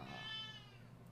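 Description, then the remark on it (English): A female cat gives a single drawn-out meow, fairly quiet, its tone sliding downward and fading out over about a second with no talking. “The cat has arrived.”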